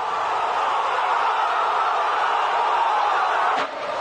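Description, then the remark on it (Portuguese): A huge stadium crowd roars in celebration of Diego Galván's diving-header goal from a Verón cross, making it 1–0 in a match against Gimnasia, a steady, loud wall of cheering and shouting that holds for several seconds before briefly dipping near the end. “Como vemos, Galván aparece muy solo, no tenía marca, picó y el centro milimétrico de Verón puso el 1 a 0, así lo gritó la gente.”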